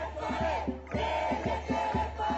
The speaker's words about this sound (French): Plusieurs centaines de manifestants israéliens d'origine éthiopienne bloquent une autoroute principale à Tel Aviv. La foule scande Justice pour Raphaël, un enfant de 4 ans percuté par une automobiliste qui a pris la fuite.